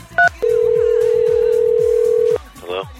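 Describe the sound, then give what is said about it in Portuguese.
A single short keypad beep sounds, then a steady, unbroken telephone tone holds for about two seconds before cutting off, and a voice briefly starts afterward. “o mais máximo que pode acontecer com ele é alguém no Itamaraty pegar o telefone e ligar para os Estados Unidos e falar.”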